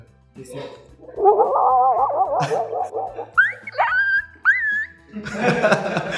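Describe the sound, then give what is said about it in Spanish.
A person mimics a dog barking in the distance, producing a wavering howl followed by several short, high yelping barks, then breaks into laughter and talk at the end. “Sí, has escuchado al perro que la ladra de lejos, ¿no?”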